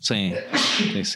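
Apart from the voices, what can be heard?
sneeze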